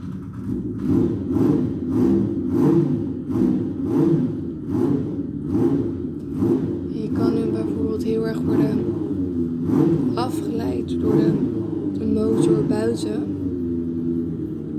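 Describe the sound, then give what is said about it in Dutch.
A motorcycle engine revs at a motorcycle shop next door, a steady low rumble that surges and dips in pitch throughout, with someone talking over it. “Alleen de kunst is om te blijven luisteren en je niet te laten afleiden door die motor.”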